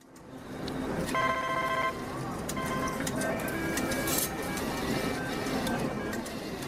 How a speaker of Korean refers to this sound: 담배 연기가 자욱한 카지노. 쉴새 없이 슬롯머신이 돌아갑니다.